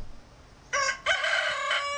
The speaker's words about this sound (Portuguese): O galo. o galo cantando já,